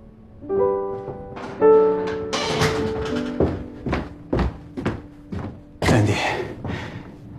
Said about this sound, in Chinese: 你上来吧，我给你开门。